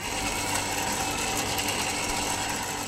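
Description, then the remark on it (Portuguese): A roller mixer slowly turns small round vials lying on their sides, making a steady, continuous mechanical rattle and whir with a faint ticking texture. Moderately loud, with no voices. Recorded on the first floor of the Instituto Gulbenkian de Ciência in Oeiras. “Os pequenos frascos redondos que giram deitados sobre si produzem este som que ouvimos agora e que foi gravado no primeiro piso do Instituto Gulbenkian de Ciência, em Oeiras.”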